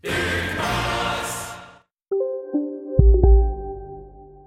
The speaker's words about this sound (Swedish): Vignett. Det var vinjett där eller? Det är vignett, den gamla.